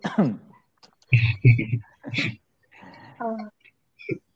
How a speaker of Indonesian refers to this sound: Batuk dulu.